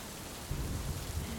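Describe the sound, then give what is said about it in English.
Steady rain hisses across the whole moment while a low, rolling rumble of thunder swells in after a brief pause and keeps growling underneath. No voices, just the storm, soft. “Guided meditation and thunderstorm rain sounds”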